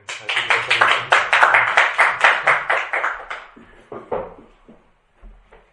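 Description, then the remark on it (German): A burst of audience applause welcoming a guest speaker who is about to give a talk: dense rapid clapping that holds steady for about three seconds, then thins into a few scattered claps and fades out. “Ja, wir freuen uns also riesig. Einen Applaus für unsere”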